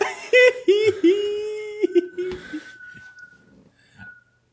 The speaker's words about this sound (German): Ich möchte mich übrigens entschuldigen. Es ist extrem windig in Leipzig. Also wir haben einen Sturm, der aufzieht und irgendwas in dieser Wohnung pfeift, weil Wind durchzieht.